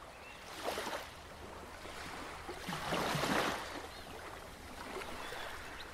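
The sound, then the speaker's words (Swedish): Ocean waves wash in and recede in slow, broad surges, with a louder swell breaking around the middle; steady sea noise fills the background and no one speaks. “Hej och välkommen till en lugn stund vid havet.”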